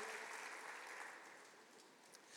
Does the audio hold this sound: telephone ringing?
no